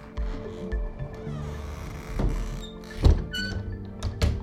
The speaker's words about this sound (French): on, va venir ici ouvrir la fenêtre et on va pouvoir entendre à la fois les voitures ou voir les collègues qui sont au bistrot.